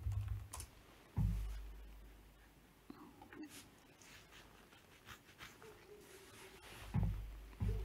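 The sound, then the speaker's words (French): Soft, irregular clicking of keys on a computer keyboard as someone types a message, with bursts of taps and short pauses, quiet, plus a few low thumps. “Je vais envoyer un petit message parce que ça devrait refonctionner.”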